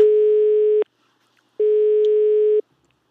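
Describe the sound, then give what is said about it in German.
A steady telephone line tone sounds in two long, even beeps separated by a short silence, loud and clear with no voices, like a call being placed. “So, jetzt mal die Telefon Telefonnummer mal raussuchen.”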